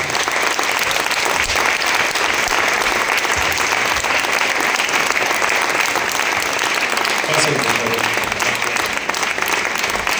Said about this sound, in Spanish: Y el día de hoy, con el corazón en la mano, les digo que tenemos el privilegio, el zehut, el mérito y la fortuna de tener a dos jayalín con nosotros. Los presento y les pido que de pie les demos un aplauso.